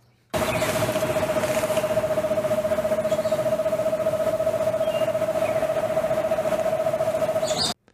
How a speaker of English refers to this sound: Next, we have the eastern screech owl.